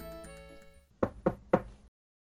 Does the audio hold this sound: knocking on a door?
yes